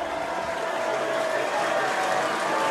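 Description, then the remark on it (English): A dense, steady roar of the Chargers crowd at an American football game during a third-and-one play, a broad wash of cheering and noise that holds strong throughout and swells slightly louder in the second half, with no clear speech on top. “Charger crowd getting loud.”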